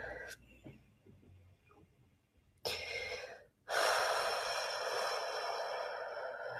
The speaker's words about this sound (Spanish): Muy bien, que cuando cada uno sienta de a poquito pueda hacer una respiración profunda.